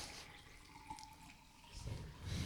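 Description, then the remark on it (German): Water pours into a glass, a steady splashing trickle that grows fuller and louder toward the end, with no voices over it. “Schenk dir, schenk dir dein Wasser ein.”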